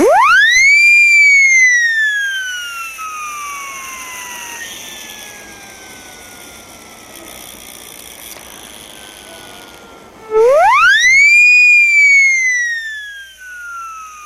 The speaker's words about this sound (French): La sirène à bouche, autrement appelée la sirène Acme, baptisée ainsi par la firme britannique Hudson Co, qui la développa en 1895. Cette mini-sirène était conçue au départ pour servir d'avertisseur sonore pour les cyclistes.